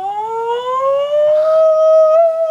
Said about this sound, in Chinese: 好，你其实大家那说来给注意的，讲万安演习，它其实就是应对这个空袭或是空中任何形态空中袭击的一个预演嘛。哦。那它那个警报声，你就可以从那个过程中就可以认得。